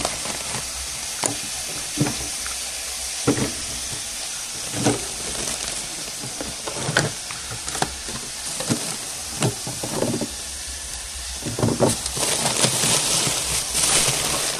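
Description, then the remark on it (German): Food sizzles steadily in a hot pan, a constant crackling hiss punctuated by irregular scraping clatters of stirring, with no one speaking. “Es ist immer gut, wenn es brutschelt.”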